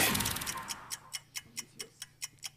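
A stopwatch ticks steadily in a quick, even rhythm of sharp clicks, timing a 20-second spoken self-introduction, starting just after a brief burst of noise and continuing alone with no one speaking.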